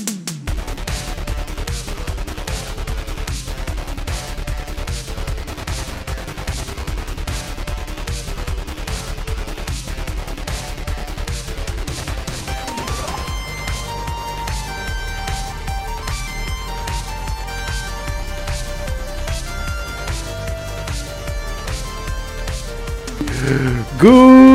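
A loud, energetic intro theme song with a driving, steady beat and layered instruments, shifting to brighter sustained melodic lines halfway through before cutting off abruptly.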